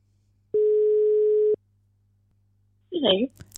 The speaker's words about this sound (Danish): Lad os prøve at ringe hende op.